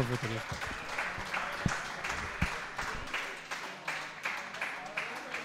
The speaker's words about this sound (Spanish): Venga, gracias. Venga, un aplauso.